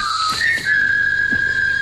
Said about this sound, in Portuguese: O meu objetivo era assobiar o tema do filme A Ponte do Rio Quai